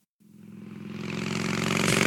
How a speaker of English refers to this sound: this is my snore.